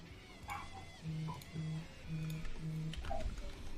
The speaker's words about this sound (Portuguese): Vou cachorro chato. tá dando pra ouvir aí ele latindo? Dá, mas dá nada. Faz parte, cara. As pessoas têm que entender que a gente tá no mundo real.